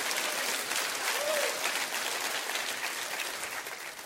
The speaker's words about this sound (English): Would you do that right now? Would you clap your hands and praise Him? Would you do that right now? It's Thanksgiving Sunday.